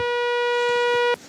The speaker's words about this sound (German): Und der vierte Ausgang ist ein Sägezahn. Das klingt so.